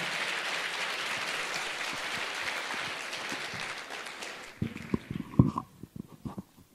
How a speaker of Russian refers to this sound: Давайте встречим сегодняшнего спикера Дмитрий Пучков. Ваши аплодисменты.